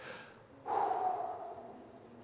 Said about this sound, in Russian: Только в том случае, если они спокойно, и ровно дышат. Вот так.